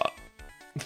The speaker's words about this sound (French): Je l'ai roté à la gueule.